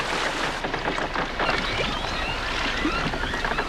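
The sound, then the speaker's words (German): A rowboat comes ashore and is moored as it grows dark and foggy, with wooden knocks, creaks and sloshing water against a steady wash of background noise, and no voices. “Sie legten an, verteuten das Boot und gingen zum Lagerfeuer hinüber, wo sich die anderen versammelt hatten.”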